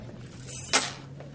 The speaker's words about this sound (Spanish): Tira las llaves en su escritorio y cierra la puerta.